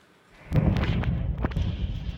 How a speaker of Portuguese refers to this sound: Uma forte explosão e o fogo toma conta da área. O incêndio começou num caminhão que transportava 60 mil litros de gás de cozinha e ficou preso sob uma ponte em Boxburg, a 40 quilômetros de Johannesburgo.